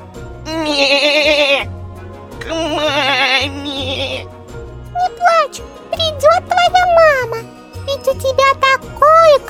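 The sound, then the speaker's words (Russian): A young goat kid bleats twice, loud, wavering and plaintive, followed by a run of shorter, higher quavering calls over a low steady hum. “Совсем рядом кто-то прокричал громко и жалобно. Цыпленок подошел поближе. Это был маленький козленок.”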